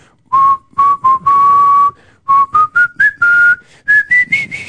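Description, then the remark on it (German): Someone whistles a clear, tuneful medley of opera and classical melodies, in short phrases and held notes that step gradually upward in pitch, with no talking. “einer und der pfeift die ganze Zeit. Und zwar lässt er ständig Opern und kommt auch mit auf dem Unterberg Bolero”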